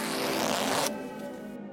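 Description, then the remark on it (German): A zipper on a new, extra-tight jersey is drawn up in one continuous, rasping pull lasting close to a second, then a faint residual hum lingers. No one speaks. “Ich quetsche meine gerade bestimmt auf doppelte Größe angeschwollenen Brüste in mein neues extra enges Trikot und meine Laune wird mit jedem Millimeter, den ich den Reißverschluss nach oben ziehe, immer schlechter.”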